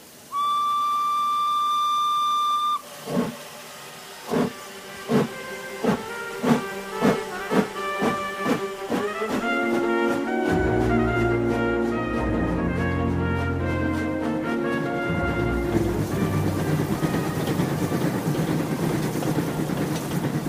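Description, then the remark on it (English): A steam locomotive's whistle blows loudly for a few seconds, then rhythmic chuffing bursts of steam build in speed until the train settles into a continuous rumbling, hissing roar. “Aouda, Passepartout, and Fix get on the train that evening.”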